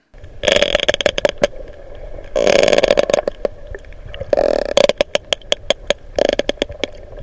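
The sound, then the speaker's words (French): Several sperm whales exchange rapid trains of sharp clicks underwater, overlapping into dense bursts, over a steady low mechanical hum. “Et mieux encore, des cachalots en plus grand nombre qui communiquent.”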